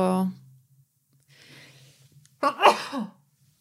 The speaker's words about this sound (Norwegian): Unnskyld. Måtte nyse.